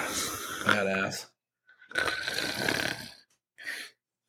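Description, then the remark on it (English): Three raspy snoring snorts made by a person who is awake, the first two long and rumbling with a short pause between them, then a brief final snort. “I just snore when I'm awake.”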